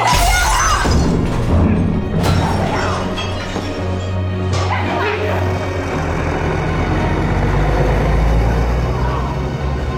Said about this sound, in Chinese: 然后继续砸烂相机和摄影作品。